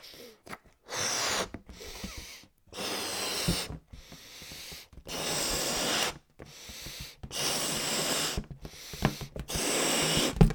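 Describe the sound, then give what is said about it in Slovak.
Someone blows up a balloon by mouth in a series of long, forceful breathy puffs, about six of them, each separated by a short silent pause for a new breath, inflating it to a medium size. “Dobre, už si to viem predstaviť, že fúkam balón bez napätia.”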